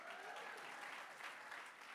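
Steady, dense applause from a group, many hands clapping continuously at an even loudness for the whole stretch, with no voices rising above it.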